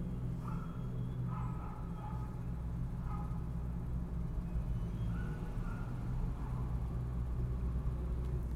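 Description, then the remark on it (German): A steady, deep engine rumble fills the inside of a car, constant, with a few faint higher tones drifting in now and then over the low drone. “Alter, ich sitze im Auto, drei Straßen weiter, ihr manövriert gerade einen LKW”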